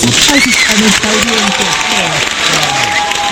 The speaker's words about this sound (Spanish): Aplausos para todos ustedes. Gracias, gracias por estar aquí.